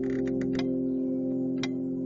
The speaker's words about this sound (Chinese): 床头的时钟轻声的走着。